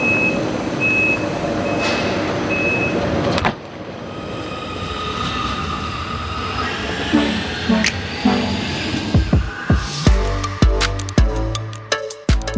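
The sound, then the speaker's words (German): A train's door-closing warning beeps sound at platform 18, on a train journey from Düsseldorf to Munich, as a run of short, steady high-pitched tones over rumbling rail noise, followed by the train's low hum and a series of heavy clunks and rattles. “Gleis 18. Bitte steigen Sie ein. Die Türen schließen automatisch.”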